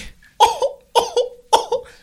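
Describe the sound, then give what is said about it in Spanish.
Three hoarse coughs in quick, even succession, each a sharp burst with a short second catch, fairly loud, with no talking around them. “Dice, perdón, voy a toser.”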